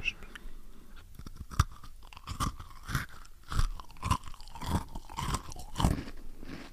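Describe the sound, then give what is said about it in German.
Crisp crunching as someone bites into and chews a chocolate cookie for ASMR, with a steady run of sharp crunches roughly every half second and no talking. “Einmal ein ASMR-Keks für die Zuhörer. Nee, ich meinst muss du, das mir, klappt? Ich muss mir die Ohren zuhalten, weil warte, ich sonst... Warte, ich mache so einen richtigen Crunch.”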